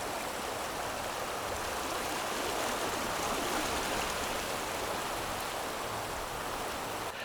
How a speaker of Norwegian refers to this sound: Og her i Saltstrømmen har vi jo veldig mye strøm. og det er veldig komprimert.